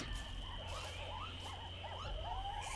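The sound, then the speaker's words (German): A string of warbling, whooping monkey calls rises and falls over a steady, dense jungle hum of insects and background noise. No one speaks. “Die Ohren gespitzt hier im Dschungel. Wir den Affen mal wir noch ein bisschen leiser machen”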